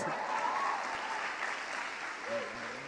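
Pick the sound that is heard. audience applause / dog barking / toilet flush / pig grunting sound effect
audience applause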